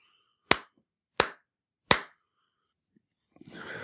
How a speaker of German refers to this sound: So, jetzt bin ich fertig damit und äh, beginne direkt mal mit so einer Klatschprobe.